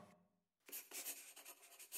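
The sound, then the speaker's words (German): A pen scratches across paper in quick strokes after a brief moment of quiet, the scribbling continuing in short bursts as Mr. Hershey signs papers in his lawyer's office in November 1918, signing over a large part of his fortune to a school. “Hershey unterschreibt die Papiere, mit denen er einen Großteil seines Vermögens der von ihm und Kitty gegründeten Schule überschreibt.”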